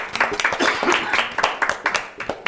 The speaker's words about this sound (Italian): È stata risposta giusta? Giustissima! Applausone!